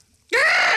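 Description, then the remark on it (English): A person imitates the mating scream that female sloths call from the treetops to find a mate: one loud, sustained, high-pitched shriek that starts abruptly with a rising squeal and holds steady for about half a second, alone. “They simply scream like this”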